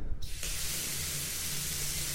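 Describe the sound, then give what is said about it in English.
A bath tap in a home is turned on and water gushes steadily from the faucet, a bright hissing rush that stays constant after a brief quieter start, with no voices. “Well, we discovered that when you turn on the water”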